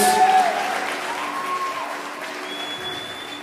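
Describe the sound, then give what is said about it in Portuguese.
An audience claps for Jesus during a sermon, in a dense, continuous wash of applause that stays fairly loud throughout, with faint tonal hum and a few scattered voices underneath. “Se você acredita nisso, dê uma salva de palmas para Jesus, que Ele é maravilhoso.”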